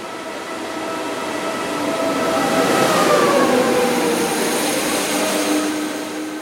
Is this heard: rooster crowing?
no